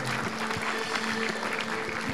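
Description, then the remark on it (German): An audience applauds the morning's sermon steadily, a dense wash of many hands clapping at an even level throughout, with a faint sustained low tone humming underneath. “Lass uns auch dir mal einen Applaus geben im Heiligen Geist für dieses Wort heute Morgen.”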